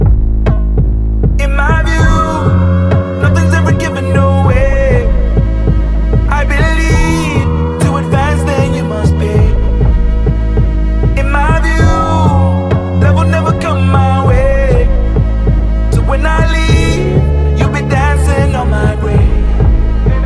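A loud song plays throughout, driven by a deep, throbbing bass pulse with layered melodic parts that swell and repeat in roughly five-second cycles.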